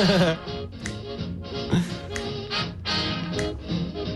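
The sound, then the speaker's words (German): Sharp finger snaps land in a steady rhythm, about two per second, over dense music playing underneath. The snaps are crisp but only moderately loud against the music. “Da muss ja, ich direkt super. so mitschnippen.”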